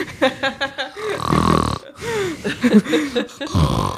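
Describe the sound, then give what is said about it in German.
A voice imitates snoring with a series of rough, throaty grunts and rasping breaths, loud, repeating unevenly over a few seconds. “Warte mal, ich bin kurz eingeschlafen.”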